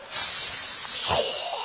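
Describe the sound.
A voice imitates vegetables being put into hot oil in a wok, a steady, breathy hiss lasting under two seconds, holding an even loudness with a brief rougher swell near the end.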